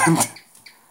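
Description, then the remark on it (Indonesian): A house gecko's chirping call: a sharp burst of chirps, followed by a couple of faint, high-pitched clicks as the sound quickly fades. “Itu teman Anda. Cicak. Cicak. Cicak di dinding.”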